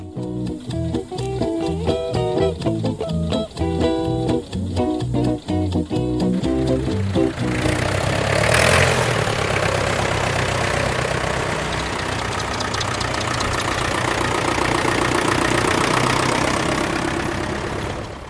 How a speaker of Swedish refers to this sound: 18 traktorer ställer upp sig i en snygg båge utanför maskinhallen